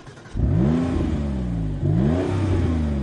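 The engine of a 500-horsepower, all-wheel-drive car turns over and catches as the driver starts it, then revs twice in quick succession as the accelerator is pressed, its pitch sweeping up with each press over a loud, steady rumble. No one speaks.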